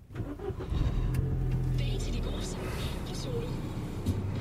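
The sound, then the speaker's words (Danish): A car engine starts up and settles into a steady, low rumbling idle that continues for several seconds, with faint higher-pitched sounds flickering over it, as the driver sets off to drive home. “jeg sat mig ind i bilen, og nu vil jeg faktisk køre hjem til min far.”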